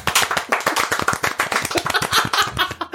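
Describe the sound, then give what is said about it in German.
A crowd breaks into applause for an audience member who has stood up, many hands clapping rapidly and densely for about three seconds, loud and steady without any talking over it. “Einmal Applaus für Riesenschwanz.”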